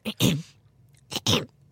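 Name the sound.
throat clearing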